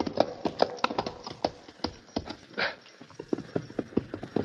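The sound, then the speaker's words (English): Horse hooves of a white horse clip-clop in a quick, uneven rhythm of sharp knocks, clear, with no voices over them. “there, that white horse.”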